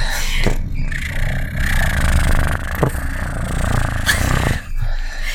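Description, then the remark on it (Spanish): A person imitates a cat's purr with a steady, rough, rumbling vocal drone, fairly loud. It keeps going for several seconds with slight pulses and catches, and no words are spoken. “Y los gatos, lo más clásico de los gatos es ronronear.”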